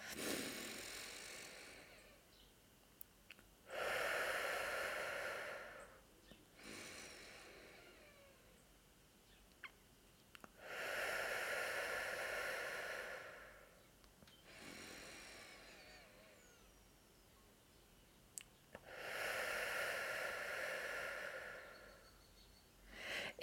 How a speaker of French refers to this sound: Donc, on respire sur trois temps et on expire sur trois temps. Je vais le faire avec vous pour que vous puissiez bien comprendre. Et ce, on le fait trois à cinq fois. Je vais le faire trois fois pour euh, l'épisode.